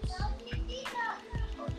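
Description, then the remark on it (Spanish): A young boy's voice chatters in the background, high and lively with a few short bursts, while faint low thumps sound underneath. “tengo el nene aquí, tengo el nene aquí.”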